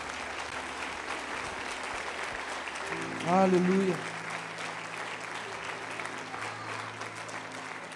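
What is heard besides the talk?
audience applauding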